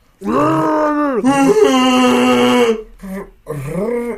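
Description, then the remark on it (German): A person imitates a Wookiee growl: a loud, long, warbling groan that rises and falls in pitch, followed by a short grunt and one more drawn-out moaning growl. “Wie geht ein Wookie-Geräusch?”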